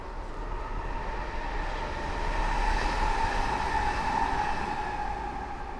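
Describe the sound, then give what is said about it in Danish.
A train rumbles past, a steady heavy roar with a metallic whine that swells to its loudest midway and then slowly eases off. No one speaks. “Og der kom toget jo.”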